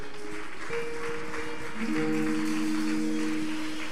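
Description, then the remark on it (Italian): An audience stands and applauds the Lord with steady, dense clapping for several seconds, while sustained keyboard or organ chords hold underneath. No one speaks. “Ci alziamo all'impiedi, facciamo un applauso al Signore.”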